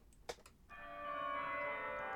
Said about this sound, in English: That's right, you are hearing. Hark. Wedding bells. You can hear. Yes, I can hear them too.